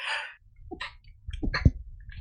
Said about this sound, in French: Pardon. le petit éternuement, excusez-moi.